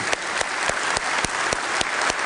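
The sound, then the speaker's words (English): Sustained applause from a large crowd in a church, applauding mothers, grandmothers, great grandmothers and spiritual mothers: a dense, steady wash of clapping with a few sharper claps standing out at a regular pace, and no voices. “as we look around this church, as we see mothers and grandmothers and great grandmothers, as we see spiritual mothers, can we applaud?”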